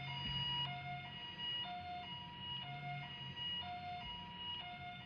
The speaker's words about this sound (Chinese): 那我在做功课的时候啊，也有发现一个影片，是在讲各国的救护车的声音。 哦， 好，你先听听看哦，这是台湾的。